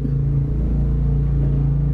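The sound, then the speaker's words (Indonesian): A motorcycle engine rumbles with a steady, low droning hum that stays at an even loudness throughout, with no voices. “aduh ada suara motor asli guys”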